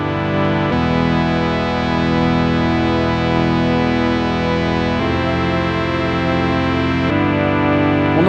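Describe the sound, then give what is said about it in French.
A 25-year-old synthesizer plays loud, sustained chords with rich buzzing harmonics and a slowly sweeping filtered tone, shifting to new chords a few times, with no talking. “Synthé de 25 ans.”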